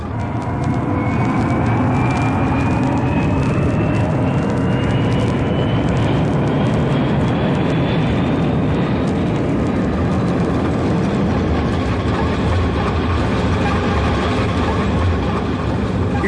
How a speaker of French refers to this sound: Donald Campbell bat le record de vitesse sur l'eau avec son Bluebird à réaction 325 km 61